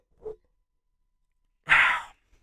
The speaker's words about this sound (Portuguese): Pá, por acaso. Uh, eh, yeah, acabei de. Hum, como é que se diz isto aqui? De, de bocejar.